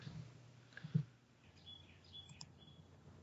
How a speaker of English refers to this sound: We have birds chirping while we wait.